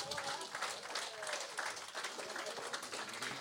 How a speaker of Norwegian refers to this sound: Der fortjener en stor applaus.